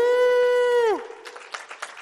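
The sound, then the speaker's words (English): At a church gathering, a single voice holds a long, steady high cheer that slides down in pitch, then scattered clapping and crowd cheers follow in uneven bursts as a volunteer comes up to prophesy. “Let's cheer him on, everyone.”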